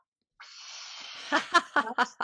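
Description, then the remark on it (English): A steady, airy breath drawn or blown through a Javara three-in-one water structuring device, which has a one-inch nozzle at the bottom and a funnel on top, lasts close to a second, followed by a few short, rhythmic bursts of laughter. “I started breathing through mine, right?”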